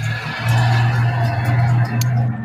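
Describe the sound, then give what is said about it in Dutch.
A car roars loudly as it drives past outside an open window, its engine a deep steady drone over broad road noise for a couple of seconds, with no one talking. “Eerst hoorde ik een berichtje en daarna heel hard een auto voorbij rijden of zo.”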